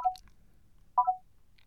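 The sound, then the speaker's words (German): A short electronic signal tone for keyboard exploration mode, triggered by pressing and holding dot 1: two brief beeps around 0.9 seconds apart, each a clear mid-pitched tone that dips slightly, like a phone keypad chirp, with no talking. “Ich drücke den und dann kommt ja dieses Signal für die Tastaturerkundung.”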